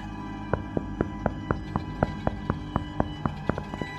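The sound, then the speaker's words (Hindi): Rapid knocking on a wall, sharp evenly spaced raps about four per second, fairly loud over a low steady background hum, continuing throughout with no voices. “वो खटखटाहट की आवाज और तेज हो जाती है”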